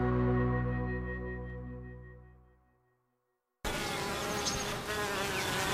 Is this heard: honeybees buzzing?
yes